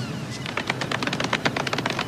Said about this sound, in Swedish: Jag vill ge dig en liten, liten golfapplåd för ett steg i rätt riktning.